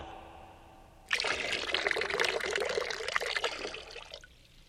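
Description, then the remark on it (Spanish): Water pours steadily for about three seconds, starting and stopping abruptly, with a splashy, bubbling texture and no voices over it. “¿Qué tomaba el hombre primitivo después de cazar al mamut? agua.”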